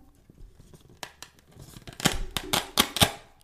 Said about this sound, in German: Oh, das Geräusch, oder? Das war ein Klettverschluss. Richtig erkannt.